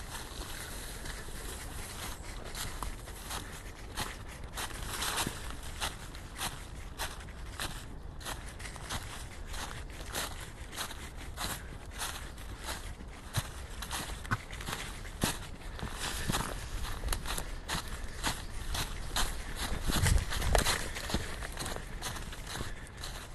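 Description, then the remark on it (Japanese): Dense crunching and rustling footsteps through thick piles of dry fallen leaves in the hills near Higashiyama Zoo at 6 a.m., a quick scurrying patter from a Shiba dog running around mixed with the slower steps of the person walking it, continuous, with no voices. “この日は柴犬と東山動物園近辺の山の中歩きました落ち葉がたくさん積もっている中を走り回る小気味よい足音と私の足音です”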